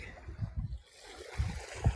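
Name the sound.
beach ambience with waves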